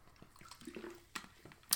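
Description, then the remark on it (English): Quiet liquid sounds of someone sipping sparkling water, with soft wet clicks and small fizzy bursts. A couple of sharper slurps stand out near the end, with no talking. “so I'm drinking some sparkling water”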